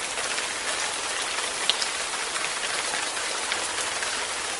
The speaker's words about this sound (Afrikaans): Nee, nou weet, die reën sous neer daar buite, mos jy? Alles is nat van die water.